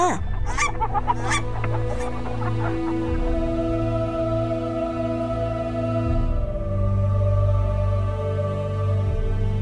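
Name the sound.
goose honking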